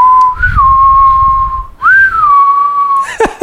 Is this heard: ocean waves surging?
no